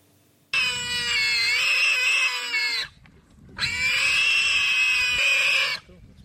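Two long, loud, shrill squeals from a warthog in distress as it is attacked by a leopard, each lasting over two seconds with a brief pause between, harsh and strained over low rumbling background noise.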